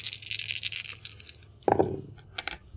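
Dice rattle and clatter for about a second, rolled by a player during a role-playing game, then a dull knock and a few scattered clicks as they settle on a hard tabletop, moderately loud with no voices.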